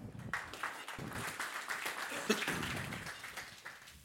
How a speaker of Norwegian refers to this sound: En varm applaus til dem.